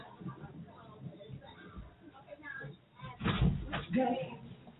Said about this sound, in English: Oh, somebody is banging on my door like they the police.